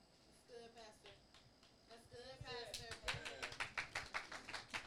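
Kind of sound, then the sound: crowd, sparse audience clapping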